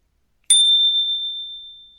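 A single bright, resonant ping like a bicycle bell, struck once after a brief silence and ringing on with a clear high tone that slowly fades. No voices.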